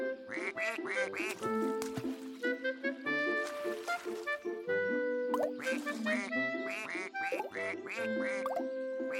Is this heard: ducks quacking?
yes